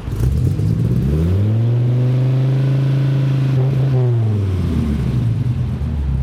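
A car's V10 engine revs once, its deep harmonic tone climbing, holding steady for a few seconds, then sliding back down to idle. It sounds loud, with no talking.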